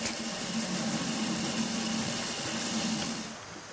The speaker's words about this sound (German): Im Schleifautomaten wird das Glas schließlich aufgrund der exakten Programmierung in Form gebracht.